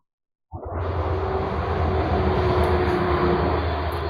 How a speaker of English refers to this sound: It's not the truck; it's the train. I could tell just by the way it sounded. Yeah, that, those definitely sound different.